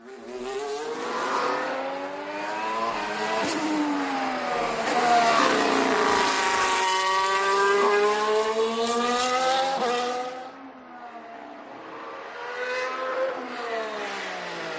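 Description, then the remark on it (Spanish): A Mercedes Formula 1 car engine screams past, its high-pitched whine rising and falling through several gear changes as it sweeps by, loud, then fades briefly before another surge. “Y ahora llegamos a la zona de podio donde viene aquí, bueno, zumbando el próximo motor, el próximo monoplaza.”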